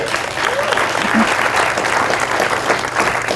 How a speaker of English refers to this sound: Give it, give a round of applause for our youth.